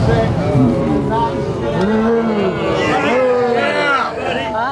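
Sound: crowd booing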